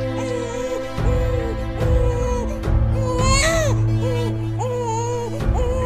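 human body sound, newborn baby crying

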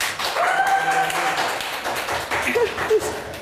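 crowd, audience clapping

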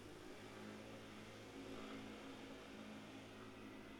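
vehicle, motorcycle passing by outside

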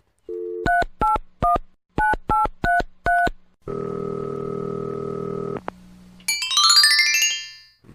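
signal or alarm, telephone dialing tones

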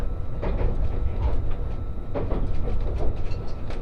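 vehicle, train running on rails

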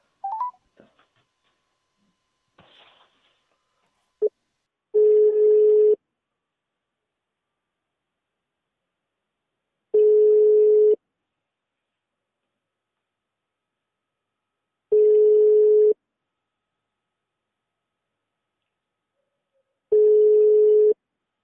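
signal or alarm, telephone ringing tone

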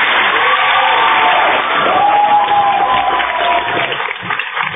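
crowd, applause

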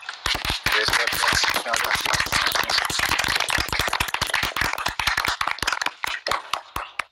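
crowd, group clapping hands

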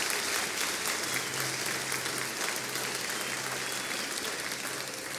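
crowd, audience applause

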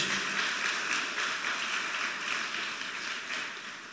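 crowd, audience applauding

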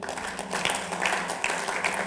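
crowd, audience clapping

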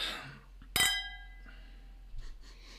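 household object, glasses clinking

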